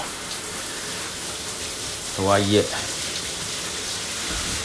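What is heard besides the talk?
heavy rain falling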